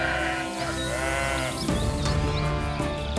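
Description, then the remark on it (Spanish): Sheep bleat continuously, several overlapping, wavering cries with a steady, full loudness and no speech over them. “Cuenta la historia que un pastor tenía 100 ovejas, a las que cuidaba todos los días, llevándolas a comer pasto y a tomar aguas tranquilas por los montes.”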